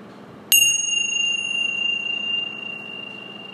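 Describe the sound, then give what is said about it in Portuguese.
A single meditation bell is struck once, giving a bright, clear metallic ring whose shimmering overtones hang in the air and slowly fade over a few seconds against a quiet background. “Observa o efeito do som do símbolo nesse espaço.”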